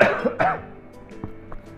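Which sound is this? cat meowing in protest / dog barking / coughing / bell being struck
coughing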